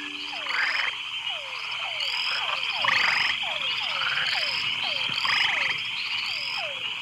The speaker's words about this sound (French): Je me suis vite rendu compte que l'ambiance était encore plus agréable durant la nuit, lorsque plus de 30 espèces de grenouilles se rassemblaient dans des chœurs à travers l'île pour entonner leur chant de séduction.